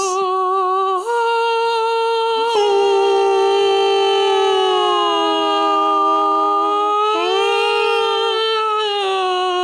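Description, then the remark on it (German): A loud, steady siren tone sounds continuously with no talking, its pitch stepping up or down a few times before holding level again, like a civil defence siren test. “Sirenentest. Nächsten Mittwoch um 13 Uhr.”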